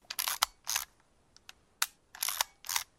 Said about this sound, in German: Eine Aquamatic Telepocket, eine Fotokamera mit sogenanntem Repitomatic Schnelltransport oft auch nur Ritsch-Ratsch-Kamera genannt, nach dem Sound, der von ihr zu hören war.